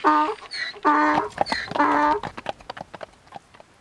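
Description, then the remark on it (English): A donkey's hooves clip-clop in a quick, uneven patter as it carries a woman rider off on a ride back to the entrance, following a few loud, tonal animal cries; the hoofbeats grow lighter as they trail off. “And she hoists herself up on his animal without haggling on a price and riding off like the Queen of Sheba in a raincoat.”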